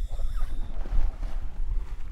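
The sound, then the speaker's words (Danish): Heavy splashes and a churning rush of water as two divers carrying lights drop into the water after a countdown, with a low rumbling background and a couple of stronger bursts of splashing early on. “Blop, siger det.”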